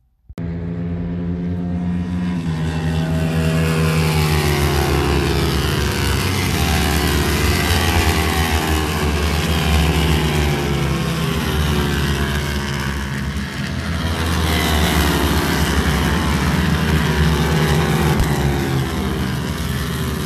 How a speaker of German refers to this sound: Und was ich dir jetzt hier erstmal abspiele, ist der Sound der Superbikes. Also, viel Spaß!